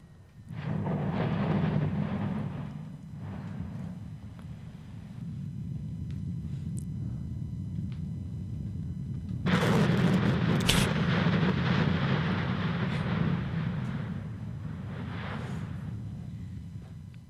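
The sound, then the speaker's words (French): A Stromboli volcanic eruption: a deep, continuous rumbling roar that swells into a louder, crackling blast partway through, then settles back into a heavy low rumble. No voices. “Voici un son d'éruption volcanique du Stromboli.”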